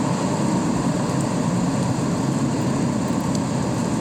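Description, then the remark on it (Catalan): A steady, loud rumble of snowplow engines starting up as snow arrives, machines with plow blades for pushing snow off the road; a dense continuous drone with no pauses, with no voices over it. “Quan arriba la neu, estan preparats. Les màquines engeguen motors tot el que són les màquines que és d'empenya de, de, la neu, que, que són les, el, el tipus les pales, aquestes pales que normalment són aquestes pales que podem veure a la carretera”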